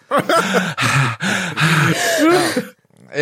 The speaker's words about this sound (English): furiously panting between uh, between lines.